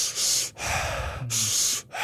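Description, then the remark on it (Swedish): Fast, forceful breathing in a demonstration of shamanic or DMT-style breathwork: two quick cycles of a sharp, hissy inhale followed by a heavier, rougher exhale, in a steady rhythm with no talking. “Eh, det är hans, han, han använder mer så här shamanisk slash DMT breathwork som jag sett förut.”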